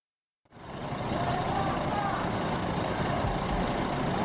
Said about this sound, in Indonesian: Sebuah bus memasuki terminal Lok pada suatu pagi buta sekitar tiga tahun lalu. Terminal masih sibuk, warung kopi, dan rumah makan masih buka.